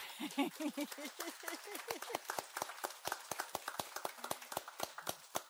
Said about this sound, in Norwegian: Applaus for det, folkens!